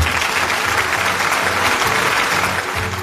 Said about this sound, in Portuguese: o Agro Startup 2023 ocorre o Demo Day, no qual as startups pré-aceleradas apresentam seus pitches para uma banca técnica e de possíveis investidores, entre outros atores do ecossistema de inovação local e nacional é para aplaudir de pé comunidade.